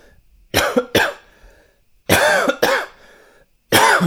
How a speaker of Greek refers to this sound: θα την πούμε εσκεμμένο βήξιμο